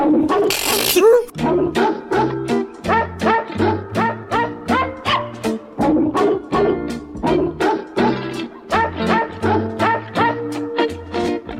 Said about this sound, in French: Le saviez-vous Deuxième Deuxième anecdote, jingle.